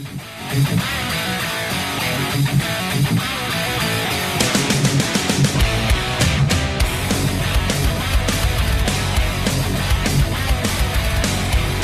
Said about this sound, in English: It's called "…," the second single from their forthcoming album, and here's what it sounds like.